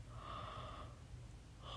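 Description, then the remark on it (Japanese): A soft, drawn-out yawn, breathy and voiced for under a second, then quiet before another breathy exhale begins at the very end; the speaker has been yawning repeatedly. “本当にダラダラあくびをもう何回もしまくってるひどいラジオですね本当にすいません”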